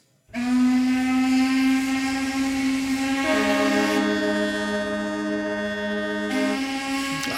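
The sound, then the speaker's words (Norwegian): Horns of cargo ships, boats and ferries blare together in a harbour at twelve noon, marking the situation of seafarers during the pandemic; long sustained tones overlap as a second lower horn joins partway through, loud and continuous for several seconds with no talking. “det er lasteskip, båter og ferger som markerer eh, situasjonen for sjøfolk under pandemien.”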